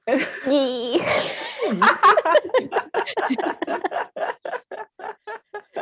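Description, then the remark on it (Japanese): A woman's abrupt sneeze ending in a wavering, high-pitched squeal like "wee," followed by several seconds of rhythmic, breathy laughter that tapers into short bursts. “くしゃみの時、ウィーっていうの。”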